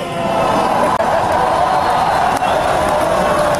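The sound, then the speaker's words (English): A large crowd roars steadily, a dense wash of cheering voices that stays loud and constant for a few seconds with only brief dips. “They're cheering him again.”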